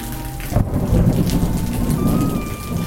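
Steady, dense rainfall pattering on surfaces, with a deep rumble of thunder rolling in under it and sustaining a heavy low roar throughout; no voices. A September downpour in Santa Marta on the opening night of the 34th Festival Internacional de Teatro del Caribe.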